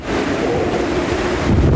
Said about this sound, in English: Just listen to that roaring wind. It is so close.